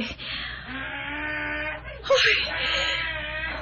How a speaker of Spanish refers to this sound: juraría que, que por aquí anda el espíritu de don Hermógenes. Ese es su burro.